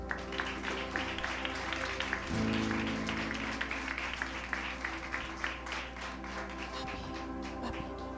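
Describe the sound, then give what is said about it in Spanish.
An audience applauds the Lord steadily for several seconds, a dense, continuous patter of many hands clapping, with a low sustained instrumental tone humming underneath and no voices. “un aplauso al Señor.”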